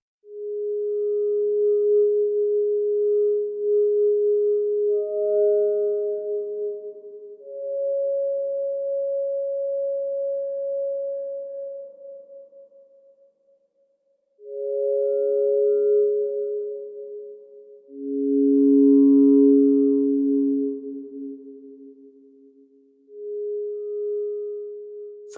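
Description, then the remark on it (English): Slow ambient music made of long, pure sustained tones that glide between a few pitches, with brief pauses between phrases; a single soft, steady instrumental voice with no talking. “this next one I have is called "Forgotten Memories." I just like the sound of it. It's weirdly like ambient”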